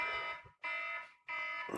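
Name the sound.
alarm clock ringing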